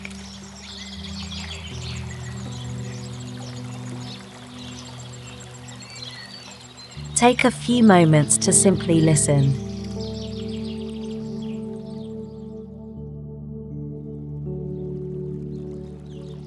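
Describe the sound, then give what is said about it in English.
Faint, distant birdsong on a mountain twitters and chirps in a soft, continuous background over a steady low hum, while a voice speaks briefly in the middle. “The mountain has its own symphony, the distant echoes of bird songs, the whistle of the wind, the silent majesty of the peaks.”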